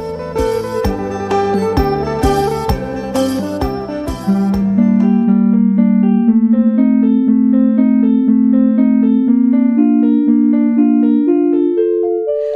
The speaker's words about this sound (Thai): ตอนนี้มันคือเสียงของคาร์บอนไดออกไซด์ร้องเพลงค่ะ เราบันทึกการเปลี่ยนแปลงของคาร์บอนไดออกไซด์ในลาวในระยะ 10 ปีนี้ แล้วแปลงมาเป็นเสียงบรรเลงนี้โดยใช้โปรแกรมเฉพาะทาง นี่คือเสียงของระดับคาร์บอนไดออกไซด์ในอากาศ